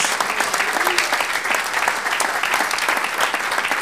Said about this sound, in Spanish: Gloria a Dios, démosle un aplauso al Señor, gloria a Dios.